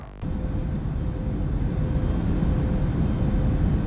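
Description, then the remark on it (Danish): A steady, unbroken airplane cabin drone from a one-hour airplane cabin sound recording: a deep, even rumble of engine and air noise with a faint constant hum running through it, holding at the same level with no voices. “En times flyvekabinelyde.”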